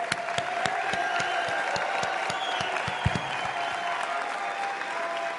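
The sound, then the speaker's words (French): A crowd applauds steadily for the campaign team at a political campaign evening in Lille, in the Nord department. Dense clapping fills the whole stretch at an even, sustained level, with a few sharper individual claps popping out and no talking over it. “On les applaudit tous bien fort.”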